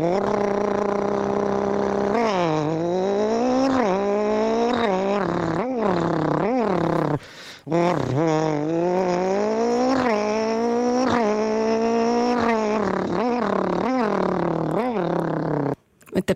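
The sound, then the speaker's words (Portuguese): A man's voice imitates a rally car engine for Rádio Comercial, loud, with buzzing revs that repeatedly climb and drop like gear shifts, pausing briefly midway before roaring on. “vou deixar aqui o, então, o som de um carro de ralis.”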